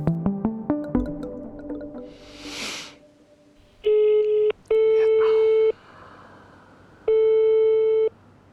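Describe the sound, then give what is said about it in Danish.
A quick run of rising dialing beeps, then a phone line's ringing tone sounds in three steady, clear electronic bursts, the first two close together and the last after a longer pause, on a call placed from Denmark to Landstyrelsen i Skåne. “og jeg ringer fra Danmark.”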